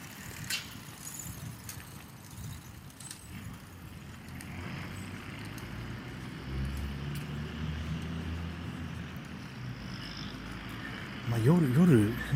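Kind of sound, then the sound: vehicle, road traffic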